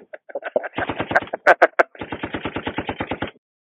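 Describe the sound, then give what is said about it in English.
Rapid bursts of gunfire sound effect, loud, with a few sharper single shots in the middle followed by a long steady automatic volley that cuts off abruptly. “Let's give a gunshot for that to him.”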